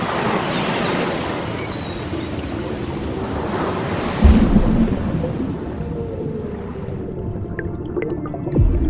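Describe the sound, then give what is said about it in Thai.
Sea waves wash steadily onto a beach, a continuous broad rushing hiss with a heavier surge around the middle and another near the end, with no voices present. “ก่อนที่จะขอร้องทะเล ให้ช่วยซัดเอามันกลับลงไปในน้ำอย่างเดิม”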